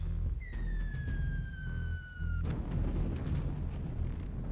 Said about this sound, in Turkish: Mekiğin içinde iliklerimize işleyen patlamayla sarsıldık. Alarmlar çalmaya başladı.